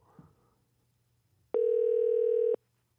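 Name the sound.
telephone call connecting tone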